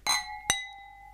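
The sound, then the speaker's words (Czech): Two bright glass clinks in quick succession as three people toast with three glasses, the second sharper, each leaving a clear ringing tone that lingers and slowly fades. Fairly loud, with no voices. “Plné dobrot a protože jsme tři, tak máme ještě tři sklenice. Na zdraví.”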